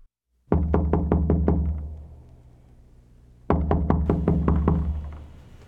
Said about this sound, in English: Oh, here's a knocking indeed.